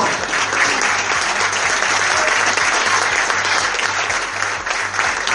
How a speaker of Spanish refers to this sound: Fuerte el aplauso para todos ustedes.